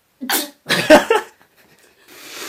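Two or three sharp, close sneezes in quick succession, the first a short burst and then a louder double sneeze, followed by a brief pause and a soft rush of breath.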